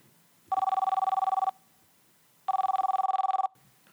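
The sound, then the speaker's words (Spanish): An outgoing phone call's ringback tone, two one-second bursts of a warbling electronic tone about two seconds apart, clear and steady with quiet gaps between and no talking. “Voy a llamar primero, primero a Tania, un momentito.”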